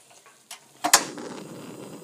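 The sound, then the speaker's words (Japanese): A portable cassette gas stove, set up in a kitchen to record cooking sounds, has its knob clicked a few times, then the burner catches with a soft whoosh and settles into a steady, low roar of flame, with no talking. “カチャって言って火がボッてつくこの音がすごく私なんかこれから料理するぞっていう感じですごく好きな音なんです。”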